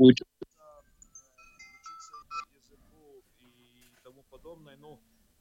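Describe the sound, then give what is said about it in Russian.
A phone ringtone from an incoming call during a remote conversation plays a faint electronic melody of short stepped tones, following a brief loud thump at the start, with a voice murmuring toward the end. “А, я кто-то слышу... звонит.”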